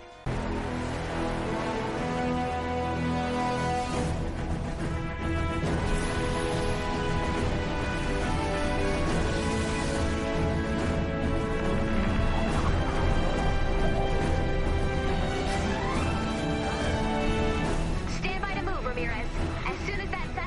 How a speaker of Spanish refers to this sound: uno de esos Battle Royale, como el que estamos escuchando de fondo, eh, como es el caso del Fortnite